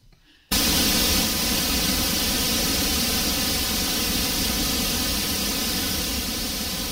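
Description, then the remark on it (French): Pink noise switches on abruptly after a brief pause, then holds as a loud, steady, full-bodied hiss with a deep rushing quality, much like a torrent, continuing unchanged with no voices. “Non, en fait, le, le bruit rose, c'est ça.”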